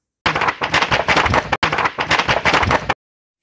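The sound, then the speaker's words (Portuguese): Loud thunder cracks and rumbles in two long, crackling bursts separated by a brief break, with no voices present. “do trovão. Parabéns para quem acertou, mais uma vez.”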